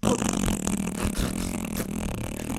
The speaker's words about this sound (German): Aber wir sind am Ende der Episode. Weißt du, was das heißt? Das. Dass jetzt noch der Pups kommt.